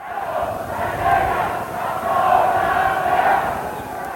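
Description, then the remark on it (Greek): A large crowd of PASOK supporters at the Metropolis of Athens, Greece, chants 'Hands off Andreas' in unison during the Grivas caretaker government, a dense roar of many voices rising and falling in rhythmic surges, loud and sustained throughout with no distinct individual speech. “Εδώ, στη Μητρόπολη Αθηνών, επί υπηρεσιακής κυβέρνησης Γρίβα, πλήθος οπαδών του Πασόκ φωνάζει κάτω τα χέρια από τον Ανδρέα.”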